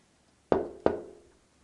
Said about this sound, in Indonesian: Bukannya ini suara orang mengetuk pintu? Ya, suara ini juga diekspresikan sebagai tom-tom.